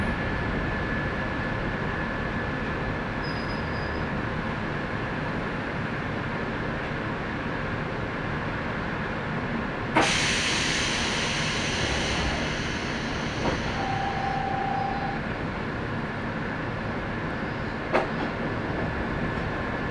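Steady, full rumble of a Sangi Railway Sangi Line local train in Japan, running from Nishi-Fujiwara toward Hokusei-Chūō-Kōen-guchi, heard from onboard, with a sudden hissing rush partway through, a short whine, and a few sharp clicks from the wheels. No one speaks.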